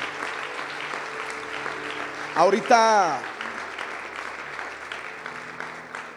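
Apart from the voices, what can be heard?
audience applause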